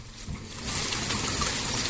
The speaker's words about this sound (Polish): Albo jest deszcz i pada dookoła, tak jak u mnie za oknem bo taki deszcz, taki deszcz i aż, aż miło troszkę sobie zwilżyć gardło.